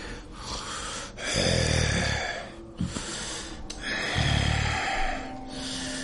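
Slow, heavy breathing of something asleep, with two deep, rumbling snore-like inhales a few seconds apart over a steady hiss, fairly loud, with no talking.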